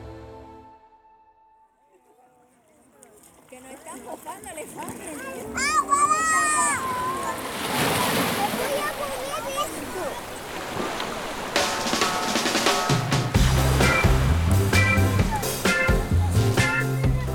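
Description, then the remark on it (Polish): Beach ambience on the north coast of Jamaica, 100 km from Kingston, with Caribbean Sea waves washing in and broad surf noise, while a small group of sunbathing tourists chatter and children's voices rise over it, and rhythmic music thumps in later. “północnej części Jamajki, 100 km od Kingston, grupa turystów zażywa słońca i cieszy się karaibskim morzem.”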